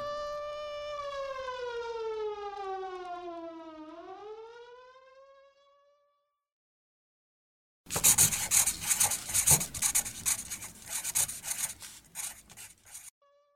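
An air raid siren sounding the call to congregate at 3 a.m. on Christmas morning wails loudly in a long, steady shriek, then drops in pitch as it winds down and fades. After a brief silence, a harsh, rasping scrape follows.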